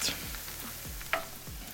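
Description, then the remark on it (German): Steady sizzling and crackling of guanciale frying slowly until crisp in its own rendered fat in a pan, with no added oil or butter, a few scraping stirs and one sharper clink partway through; no voices. “Darin lassen wir die Guanciale jetzt langsam im eigenen Fett knusprig ausbacken und dabei natürlich immer schön aufpassen, äh, dass nichts anbrennt.”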